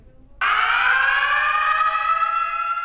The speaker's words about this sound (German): There are three different types of alarm that are used in emergencies. The terminal general alarm sounds like this.